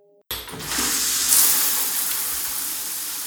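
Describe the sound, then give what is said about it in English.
A tap is turned on abruptly and water runs in a steady, bright, fairly loud rush, continuing without pause to the end. “The water feels so good.”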